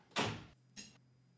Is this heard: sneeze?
no